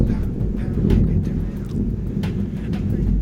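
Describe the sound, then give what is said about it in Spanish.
A steady, dense roar of heavy rain pours down on a Monday morning without a break, with low rumbling and gusty wind noise underneath and a few sharper splashes standing out. “Buenos días, hoy es lunes otra vez y no sé si escuchan, pero está lloviendo está lloviendo bastante fuerte.”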